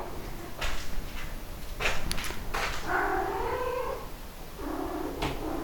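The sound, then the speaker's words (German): A cat meows twice, drawn-out tonal cries separated by a short pause, with soft low rumbling and light rustling noise in the background and no talking. “Miau, miau, ja, ja.”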